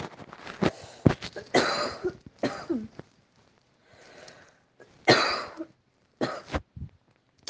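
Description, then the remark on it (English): A string of harsh coughs and rough throat clearing, fairly loud, arriving in irregular bursts with brief quiet gaps and a few softer breathy rasps between them. “And yeah, you're also going to probably hear me cough.”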